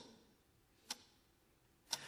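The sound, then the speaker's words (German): A clock ticks twice, about one second apart, each tick a short, crisp click over a quiet hiss. No one speaks. “Aber warum stört uns eigentlich das Ticken der Uhr?”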